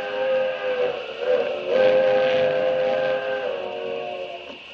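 A steam train whistle blows long and loud, its sustained harmonic chord holding steady for several seconds over the rumble of the oncoming locomotive, with no voices.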